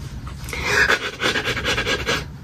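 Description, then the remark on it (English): Rapid, rhythmic breathy rasps, a person imitating a dog panting by rubbing their nose as a voiceover trick, repeating steadily for a couple of seconds with no talking. “you want me to teach you a, a, a voiceover trick for sounding like you're a dog panting?”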